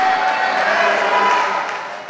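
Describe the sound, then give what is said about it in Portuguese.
An audience lets out a loud, sustained collective shout of victory, many voices roaring together for about two seconds before tapering slightly at the end. “Pelo amor de Deus, irmão, dá um grito de vitória.”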